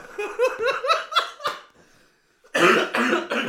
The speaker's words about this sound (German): Huste in die andere Richtung. Der wie ich ans Mikrofon ran hustet erstmal.